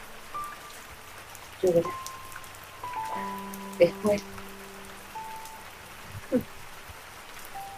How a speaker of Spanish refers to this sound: Me quedaré dormida y despertaré. Oiré la lluvia y me volveré a dormir. Una temporada de lluvia, lluvia, lluvia.